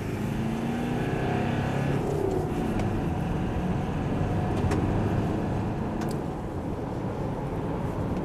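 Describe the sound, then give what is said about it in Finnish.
Steady engine and road noise from inside a moving Subaru Forester SUV with permanent all-wheel drive on a test drive, a continuous low rumble with tire hum at a constant level throughout, with occasional faint clicks and no voices. “Esimerkiksi mulla on ollut koeajolenkillä tällä hetkellä keskikulutus 6,6 litraa ottaen huomioon, että millä tavalla olen ajanut ja minkälainen auto, niin se on aika, se on aika vähän.”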